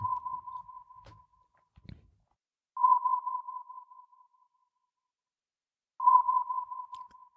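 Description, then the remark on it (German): Three sonar pings sound, each a sharp steady tone at one pitch that slowly fades with a ringing tail, spaced about three seconds apart, with faint low thumps between them. “Das Sonar ist inzwischen wieder verstummt.”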